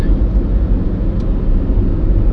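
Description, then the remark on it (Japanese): A small Passo compact car drives by, its engine giving a steady, loud low rumble that holds evenly throughout the short stretch with no one talking. “今のえ車やろパッソがな”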